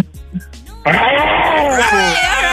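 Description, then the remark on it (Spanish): A caller on a Christmas phone-in program lets out a loud, sustained, raspy roar imitating a lion, bursting in suddenly after a brief quiet moment and holding strong to the end. “¿Cómo le hacen los leones?”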